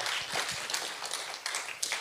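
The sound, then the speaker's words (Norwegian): An audience in Justnes misjonskirke applauds long-time attendees, a dense, steady patter of many hands clapping at a fairly even level, with a few sharper claps standing out near the end. “Ja, altså En applaus til deg, det er greit.”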